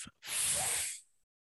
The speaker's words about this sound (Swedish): När du gör F, sätter framtänderna i underläppen, så då bromsar du utandningsluften och då andas du ut längre och då ökar du ditt parasympatiska nervsystem som är rast, vila och trans.